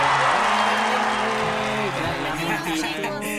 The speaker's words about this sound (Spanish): Y bueno, pido un aplauso